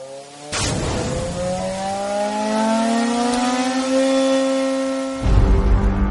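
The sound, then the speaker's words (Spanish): Loud racing car engines rev and rise steadily in pitch, a high whining roar building over several seconds before a burst of noise at the end; no one speaks. “Ya suenan los motores.”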